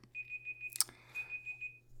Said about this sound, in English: I wonder if that went through. You can hear the beeping in the background. That that's really proof. If you could hear that, that was proof that I really did do 52 minutes.